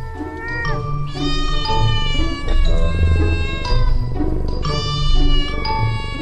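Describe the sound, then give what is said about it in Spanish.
A cat meows loudly, a string of drawn-out, wavering cries with sliding pitch that run almost continuously for several seconds, with no talking. “Te va a encantar ser el gato de una verdadera escuela de brujas.”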